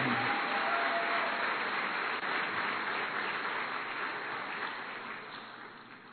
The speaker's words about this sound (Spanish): Si vas a darle un aplauso al Señor, vamos a dárselo fuerte, que es para Él.